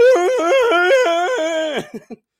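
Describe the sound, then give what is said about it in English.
A person loudly imitates a braying mule, the voice see-sawing rapidly between two pitches for nearly two seconds before sliding down and ending in two short, breathy huffs. “which is the sound I make like a mule, a braying mule”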